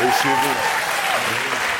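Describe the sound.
An audience claps steadily for anthropologist Luiz Eduardo Soares in a dense, continuous burst of applause, with a voice speaking over it at the start and again toward the end.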